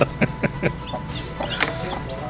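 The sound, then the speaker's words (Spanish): Small chicks peep and cheep in a short video clip, a quick run of short calls, a few sharp chirps early on and then higher, thinner peeps, over a steady background hiss. “Ay, nomás mandó un videito de unos pollitos.”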